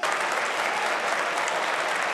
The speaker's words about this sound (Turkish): Şu anda Avrupa'ya parmak ısırtan Türkiye'deki güvenlik kuvvetlerimizi ben de ayakta alkışlıyorum, ayakta alkışlıyorum.